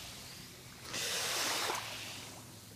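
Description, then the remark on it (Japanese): A soft wash of water swells up for about a second over a low background hiss and then recedes, a single gentle wave rolling onto the beach of a swimming area on an island in the Seto Inland Sea, Japan, where the waves are calm. No one speaks. “この瀬戸内海ね、三牛島の海水浴場をこの地平線ね瀬戸内海見ながら今年の思いね、まあ、叫ばなくて結構ですこの波音を聞きながら一言お願いします”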